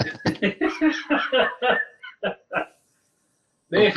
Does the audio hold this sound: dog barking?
yes